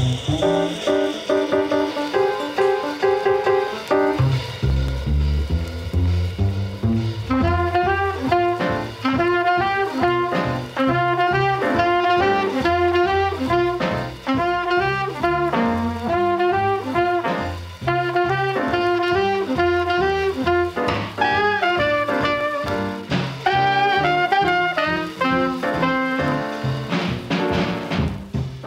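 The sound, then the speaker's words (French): A bebop jazz record plays loud and steady from a jukebox in a small restaurant in Detroit, with quick horn lines over walking bass and brisk drums, continuous throughout with no talking. “…, ….”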